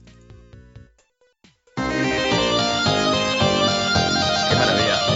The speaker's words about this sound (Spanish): Pues espera, ni una palabra más. Rusty, ahí va, la música del Rusty.